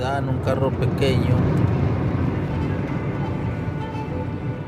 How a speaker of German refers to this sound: Mit einem großen Auto macht man sich dort sofort verdächtig. Deshalb fahren wir in so einem kleinen Sedan. Das ist viel besser.